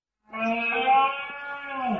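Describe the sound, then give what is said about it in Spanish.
A red deer stag gives one loud, drawn-out rutting bellow lasting about two seconds. The groaning roar is rich, sliding lower in pitch as it fades at the end, with no voices. “Este es el sonido de la berrea del ciervo.”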